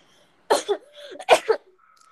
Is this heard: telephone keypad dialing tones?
no